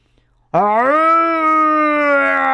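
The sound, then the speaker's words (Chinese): A human voice imitates a lion's roar: a single loud, sustained growling cry that bursts in abruptly after a brief silence and holds steady for about two seconds. “话音刚落，他就听到一声大吼”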